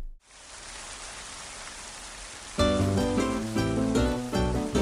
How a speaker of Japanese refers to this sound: 雨の音を聞きながら